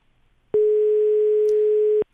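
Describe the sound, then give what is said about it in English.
A telephone busy signal after a caller's line drops on the Conspiracy Show call-in program sounds as one steady, loud electronic tone lasting about a second and a half, starting and stopping abruptly, with no voices around it. “I think we've lost Adam.”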